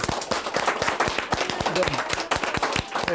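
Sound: audience clapping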